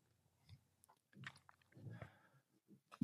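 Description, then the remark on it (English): A dog named Odie gnaws on a bone by someone's feet, with irregular wet crunches and scraping bites coming in uneven bursts, fairly quiet, and no one talking. “Oh yeah, he's chewing on a bone.”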